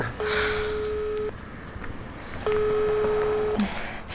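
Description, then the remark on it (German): A man on the street outside a hotel dials out on his mobile phone: two long, steady electronic tones, each lasting about a second with a pause between them. Faint background noise, no talking. “Gerade hat er sein Handy aus der Tasche gezogen.”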